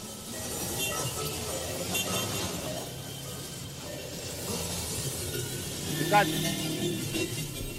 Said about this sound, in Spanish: fijaros cómo suena la vida real con estos implantes.